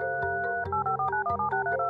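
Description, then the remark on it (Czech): A quick run of telephone keypad dialing tones for the 25 July phone call between President Donald Trump and Ukrainian President Volodymyr Zelensky, several short beeping tone pairs in steady succession, each at a different pitch, clear with no voices. “července, kdy kongres je na prázdninách, ale prezident Donald Trump si telefonoval s ukrajinským prezidentem Volodymyrem Zelinským.”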